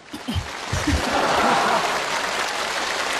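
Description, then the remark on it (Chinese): An audience breaks into applause, a dense, steady wash of clapping that swells within the first second and holds for a few seconds, with brief voices heard at the start. “掌声接，对。”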